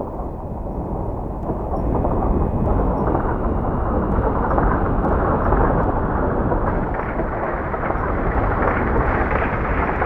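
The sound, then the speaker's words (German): A deep, loud thunderous rumbling, not from the sky but from a large, heavy millstone rolling fast along a path behind, raising a dust cloud. It roars on steadily for about ten seconds, swelling a little after the first two seconds and staying heavy and continuous, with no voices. “Aber das Grummeln und Donnern kommt nicht vom Himmel, sondern von hinten.”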